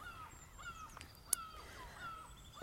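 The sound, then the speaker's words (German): Ducks call repeatedly near the water in spring, a scatter of quacking, honk-like notes spread across the outdoor ambience, with a brief sharp click partway through and no one talking. “Und ähm, ja, also da ist mir durch den Kopf gegangen, dass oh, die Enten sind ganz schön aktiv, ne?”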